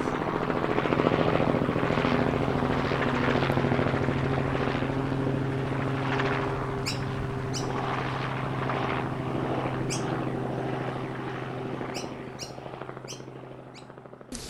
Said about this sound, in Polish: Śmigłowiec z księciem na pokładzie ląduje na polu obok zagrody.